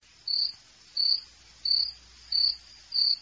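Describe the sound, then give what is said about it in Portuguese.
A cricket chirping sound effect: a cricket chirps steadily in a quiet setting, five short, evenly spaced bursts of high trilling, clear, with no voices present. “Se essa não entrar, não tiver cri, cri, cri, a gente vai fugir do programa da nova vez.”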